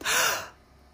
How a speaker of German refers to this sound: Und damit du das besser erspüren kannst, lade ich dich mal kurz ein, mal gerade bewusst falsch zu atmen. Und zwar atme doch mal gerade durch deinen Mund. Atme doch mal ein, ungefähr so.